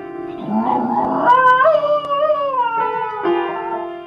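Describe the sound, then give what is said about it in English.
Muffy, a poodle mix dog who plays the piano and sings on YouTube, howls in long, wavering, high-pitched notes that slide up and down, singing along with sustained piano tones underneath. No one speaks. “I mean, that's Muffy the Poodle Mix, who plays the piano and sings on YouTube.”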